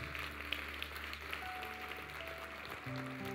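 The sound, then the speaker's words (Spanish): An audience claps steadily for the Lord in a dense, even wash of applause, with sustained keyboard tones humming underneath throughout. “Vamos, dale un fuerte aplauso al Señor.”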